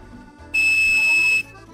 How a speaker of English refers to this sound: that's 2600 hertz tone. That 2600 hertz tone is what controls the AT&T American telephone system, and it was developed way back in the 50s.